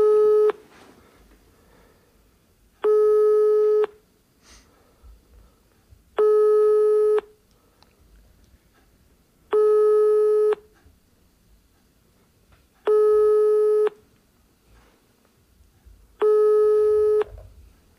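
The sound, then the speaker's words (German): A telephone busy tone plays over a speakerphone after the call is automatically hung up, six steady beeps each lasting about a second, evenly spaced with short pauses, clear and fairly loud against faint room noise. “Nee, ist aufgelegt. Auto, automatisch aufgelegt, okay, alles klar.”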